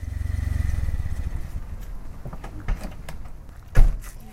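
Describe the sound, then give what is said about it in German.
A car approaching on a wide sandy path in a Bavarian cemetery: its engine rumbles low and loud, then eases down as it rolls to a stop; two sharp clunks follow near the end, the second louder. No one speaks. “Doch statt eines Fahrrads nähert sich ein Auto auf dem breiten Sandweg.”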